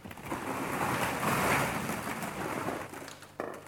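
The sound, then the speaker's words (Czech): A simulated storm, switched on in a Snoezelen relaxation room, fills the space with a steady, loud rushing wash like heavy rain and surf, swelling slightly midway before easing, with a brief abrupt jolt near the end. No one speaks. “Tak já teď udělám tu bouři a půjdeme do vedlejší místnosti.”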